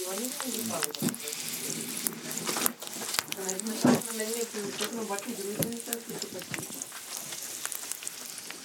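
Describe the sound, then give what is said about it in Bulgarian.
Gyoza dumplings filled with minced meat, kimchi, green onion and soy sauce sizzle and crackle steadily in a hot pan, a dense continuous hiss with scattered pops, while a man speaks over it. “В момента почва да има гьози в тиган.”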